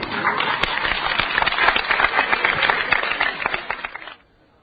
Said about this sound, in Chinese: 好了，呃，出来吧，观众都鼓掌了。好了，再次鼓掌来。